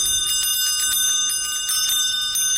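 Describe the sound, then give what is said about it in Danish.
Sleigh bells on a running horse's harness jingle steadily and brightly in a quick, continuous shaking rhythm, fairly loud, with no voices. “Det er kanebjæller.”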